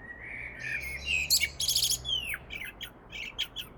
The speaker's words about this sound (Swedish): Det här gör att det inte längre är ovanligt att höra koltrastens kända sång ända in i november.